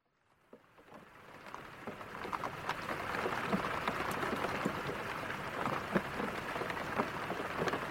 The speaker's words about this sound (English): The next morning, I rise to the sound of wind and rain. Just Scotland doing its thing.